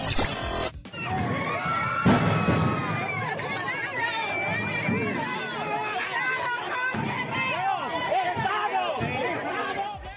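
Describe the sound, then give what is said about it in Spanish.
A large crowd of protesting teachers from the Coordinadora Estatal de Trabajadores de la Educación shouts and clamors continuously as they break down the door of the Teletón Children's Rehabilitation Center in Tlapa, many voices overlapping in a loud, agitated roar, with a sharp burst of noise at the start and a heavy thud shortly after. “Este es el audio del momento en que maestros de la Coordinadora Estatal de Trabajadores de la Educación derribaron la puerta del Centro de Rehabilitación Infantil Teletón, inaugurado este domingo en la ciudad de Tlapa,”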